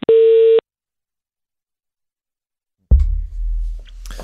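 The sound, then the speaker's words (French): A single loud telephone busy-signal beep as a phone call disconnects, steady and clear for about half a second, then silence before a low rumbling background noise comes in. “La communication vient de euh, couper.”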